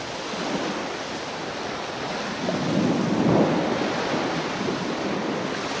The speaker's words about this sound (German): Das Meer liegt stimmungsvoll vor mir.